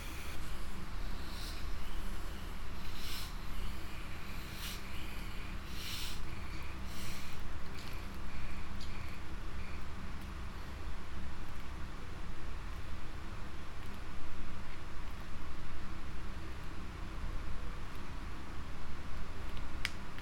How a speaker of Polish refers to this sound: Czajnik się wyłączył, a ja otworzę Pepsi i się napije. Nie chcę gwałtownie otwierać